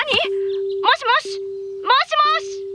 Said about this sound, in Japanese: 小原社長は急いで電話を切ると